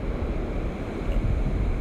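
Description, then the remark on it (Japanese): A steady, rough wash of rough, raging surf at the water's edge, a continuous low roar with gusty rumble like wind on the microphone, fairly loud and without any voices. “ちょっとねこの波この波を見ながらの呼吸ってどうすればいいのかなちょっとねあの荒い感じなんですけど”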